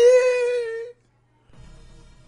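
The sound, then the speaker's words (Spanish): A person imitates a crying wail: one loud, drawn-out sobbing note lasting about a second, then a short silence and some faint low rumbling. “una, pero un pinche llanto así, güey.”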